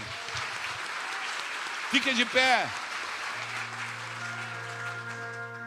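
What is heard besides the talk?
audience applause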